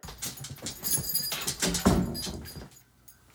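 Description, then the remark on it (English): A female dog whines and whimpers outside amid clattering and jingling, like keys or a door being handled, as she is let in, with a brief louder yelp-like burst midway before things go quiet. “Just broke the rule with the dog because she was whining out there and making havoc, so I had to let her in.”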